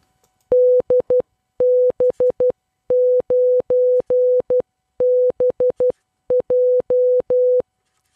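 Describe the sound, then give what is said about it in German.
A steady, mid-pitched, machine-generated Morse code tone keys out a call sign ending in 9BJ in five quick groups of dots and dashes, clear and loud with no voices, lasting about seven seconds. “ein Morse-Code. Vielleicht kannst du den auch dekodieren.”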